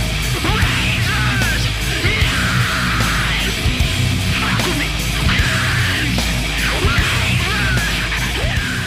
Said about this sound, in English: Dude, like, so when he's screaming in the chorus, guns, razors, knives.